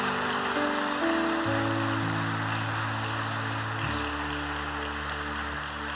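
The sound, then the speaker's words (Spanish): An audience applauds the Holy Spirit steadily for several seconds, a dense, even crackle of clapping over sustained low keyboard chords that shift pitch a couple of times. No one speaks. “Dale fuerte ese aplauso al Espíritu Santo.”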